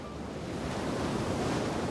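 A steady roar of strong North Sea wind on the coast of Essex, England, at 2 p.m., where 48 offshore wind turbines are generating power, buffeting the microphone, with the wash of surf blended into the constant rushing noise. No voices.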